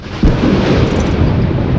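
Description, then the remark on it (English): A deep, loud rumble of thunder during a snowstorm rolls in abruptly and keeps growling steadily through the whole moment, heavy in the low end with no voices. “Jesus, this storm, right? I thought thundersnow was something they made up to do ratings.”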